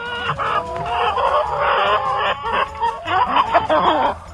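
A flock of chickens clucks continuously and loudly, with overlapping squawks and cackles and a possible rooster call mixed in, and no voices.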